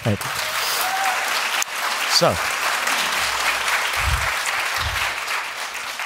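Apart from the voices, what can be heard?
audience applause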